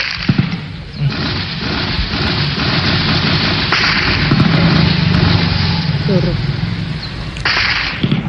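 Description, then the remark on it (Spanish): Sharp cracks of rifle bursts and dull explosions ring out in the town centre of Morales, northern Cauca, Colombia, in a noisy, distorted residents' recording, a few loud reports at the start and later, over a steady rumble with muffled voices. “En Morales, otra población del norte del Cauca, los habitantes nos han enviado videos y audios de lo que se escucha, ráfagas de fusil y explosiones en la cabecera de esta población.”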